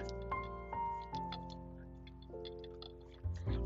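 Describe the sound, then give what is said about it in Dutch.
Small, irregular clicks and light rattles, like a loose piece knocking around inside a Leica camera lens as it is tilted, heard over a faint steady hum with no talking. “Dat zit dan los in, eh, in zijn lens...”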